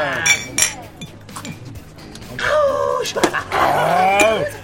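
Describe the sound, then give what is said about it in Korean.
Several glasses clink together as editorial office reporters make a toast, bright ringing taps scattered across a few seconds amid lively, crowded chatter of voices. “자, 이번에도 고생 많았어. 자, 건배!”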